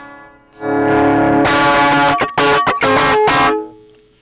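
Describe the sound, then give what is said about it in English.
The raw master output of an effects unit: a distorted, effects-processed guitar tone swells in, then breaks into a run of choppy, stuttering bursts before cutting off, loud and harmonically rich with a buzzy edge and no voices. “And now I'm going to demonstrate the raw master output.”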